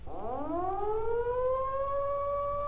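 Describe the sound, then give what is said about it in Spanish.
An air raid siren winds up from a low growl into a sustained, rising wail, loud and steady, with no voices, only a faint low rumble underneath. “Al cabo de mucho rato volvió a sonar la sirena.”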